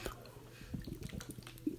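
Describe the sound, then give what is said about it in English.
Someone takes a quiet sip of ice-cold water, with a few soft, wet mouth and swallowing sounds over a low background hum. “Like, not not need need to take a sip of this ice cold water for my Red Robins, my Red Robins water ball.”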